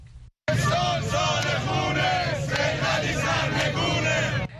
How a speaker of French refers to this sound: C'est l'année du sang, scandent les manifestants à Téhéran.